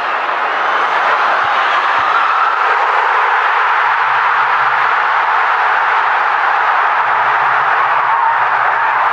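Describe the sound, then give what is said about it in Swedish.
A crowd of 33,000 at Hillsborough roars in celebration of a goal, a loud, dense wall of cheering that holds steady for about nine seconds without letting up. “Eh, men jag tycker vi kan lyssna på hur det lät när, när 33 000 på Hillsborough fick, fick jubla åt det här målet.”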